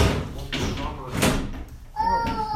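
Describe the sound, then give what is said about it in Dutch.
A drawer of a newly bought baby's wardrobe is shoved shut twice, with wooden knocks and scrapes, followed by a short high squeak as it sticks and won't close, over faint background voices. “De laag gaat alleen niet dicht.”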